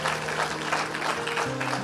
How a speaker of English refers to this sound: We're gonna clap. Let's clap a little bit right there.